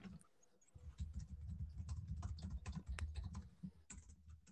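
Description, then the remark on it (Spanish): Steady computer keyboard typing, a rapid run of clicky keystrokes with short pauses, continuing throughout with no voices. “Está ahí tecleando”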